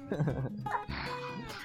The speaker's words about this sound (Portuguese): essa tosse com essa tosse de velho aí? Que é isso aí? essa tosse assim.